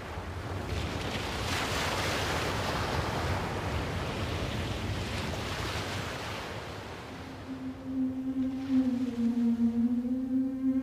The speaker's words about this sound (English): The sea state noise at the surface, the, the waves, the uh, amplitude of the waves that was generated by wind on the surface that wave action was probably the first kind of sound that uh, organisms heard.